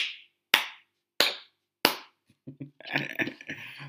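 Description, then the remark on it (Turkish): Four sharp, loud hand claps at a slow, steady beat, clapped to keep time for a guest who is to sing, each ringing briefly, followed by a short stretch of voice-like murmuring or laughter. “Alkış. Ha alkış tutalım.”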